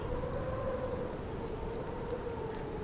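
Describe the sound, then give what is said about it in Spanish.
Steady rain falls throughout on a night with strong winds, a dense, continuous hiss with scattered drop patters and a low rumbling wash underneath, constant in level with no voices. “Era una noche con vientos fuertes y estaba comenzando a llover.”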